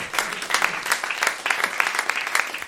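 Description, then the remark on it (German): A crowd applauds steadily, many hands clapping in a dense, continuous patter of sharp bright claps that rises and falls slightly in intensity without pause. “Ein Applaus für den Uli, bitteschön.”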